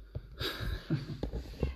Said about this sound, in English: the cat is speak to me. Um, she's the cat scared me.